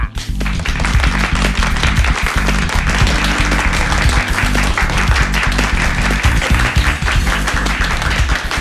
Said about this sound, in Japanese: さあスタジオの皆さん盛大な拍手